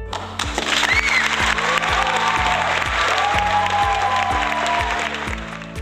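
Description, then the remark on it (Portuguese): A big round of applause, dense and sustained clapping filling the whole clip at steady loudness, with a low rhythmic musical pulse beneath and faint pitched tones drifting through. “Estou emocionado e deve estar tá rolando a salva de palmas gigantesca aqui no fundo.”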